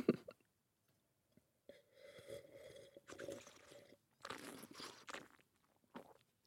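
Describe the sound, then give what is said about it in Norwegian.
Wet slurping and swishing of a big sip of wine spread around and almost chewed in the mouth, in several noisy bursts with short pauses between them, fairly quiet and with no talking. “Tygge vinen og smatte litt og man tenker kanskje man ikke er så høflig i selskap, men eh, du og jeg, vi kan gjøre som vi vil her.”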